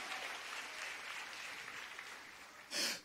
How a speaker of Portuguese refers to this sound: Você pode aplaudir o Senhor pela Páscoa? Vamos dar um grito de glória a Deus pela Páscoa e a gente pega essa palavra hoje.